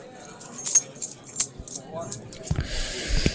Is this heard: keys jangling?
yes